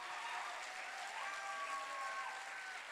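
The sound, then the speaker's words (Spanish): An audience applauds steadily, a dense wash of many hands clapping at once, sustained and fairly even in loudness throughout, with faint tonal sounds drifting over the clapping. “Déjeme, pero demuéstrelo, déle un aplauso, grite, salte, brinque, llore, pero haga algo”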